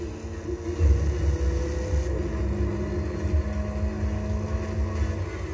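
A car engine in a video game idles with a steady, high-pitched whine layered over a deep rumbling drone, continuous and fairly loud throughout, with no talking.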